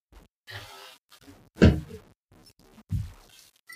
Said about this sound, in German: Na gut, dann reißen wir die Hülse mal an hier. Ah, direkt den Mülleimer getroffen.